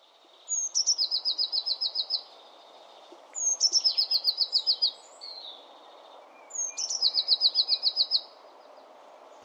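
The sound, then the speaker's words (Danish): Blue tit song: three bright, high trilled phrases, each opening with a couple of thin notes and then a rapid run of about ten ringing notes, repeated every few seconds over a soft steady hiss. “på engelsk, og det er jo næsten det, blåmejsen siger, ikke?”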